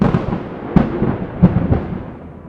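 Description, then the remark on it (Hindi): A deep, continuous thunder rumble at night with rain falling, with two sharper cracks breaking through about a second apart, fairly loud, then slowly fading. No voices. “लेकिन बाहर कोई नहीं था सिर्फ बादलों के गरजने की आवाज़ और बारिश की आवाज़ आ रही थी”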